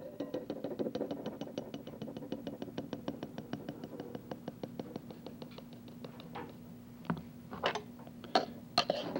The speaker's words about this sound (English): If you'll notice, 300 grams of powder in a normal mixing bowl comes almost to the top, about 3 fourths of an inch from the top. And as you can imagine, this is rather difficult to mix by hand in such a small bowl. We'll add the powder to the water